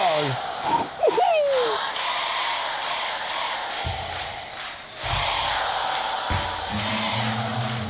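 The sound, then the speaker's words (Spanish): A large crowd of girls shouting and screaming together, loud and sustained, with high-pitched cries rising over a dense wall of voices for the whole stretch. “Ese grito de las chicas.”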